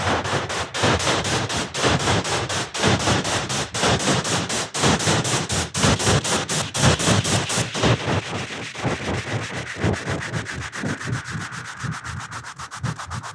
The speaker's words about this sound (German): Das klingt auch schon interessant, oder? Ja, aber es ist immer irgendwie halt Windgeräusch, irgendwie Sturm auf dem Neptun.